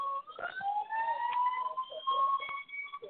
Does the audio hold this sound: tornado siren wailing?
yes